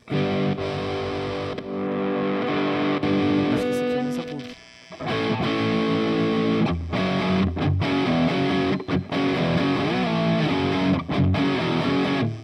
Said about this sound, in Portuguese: esse aqui acho que é um Fender, que esse aqui é melhor. E daí tem um delay aqui no meio, né?